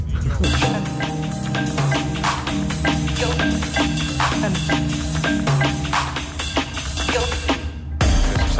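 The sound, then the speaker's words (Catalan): A dense electronic track built on a single piano chord plays continuously over a steady beat of sharp percussive hits, with a disjointed, off-beat rhythm, loud and full throughout before a brief dip near the end. “Después también lo que es la sonoridad de la pieza, la base es un, solo acorde de piano”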